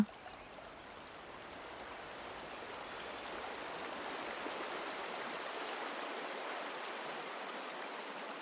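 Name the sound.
flowing river water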